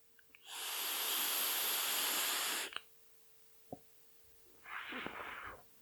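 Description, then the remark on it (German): A long, loud hissing draw from an e-cigarette filled with a citrus, cereal and milk flavoured liquid, lasting a couple of seconds, then a small click and a shorter, softer breathy exhale. No one speaks. “Die Dampfe wäre lauter. So mal als Vergleich.”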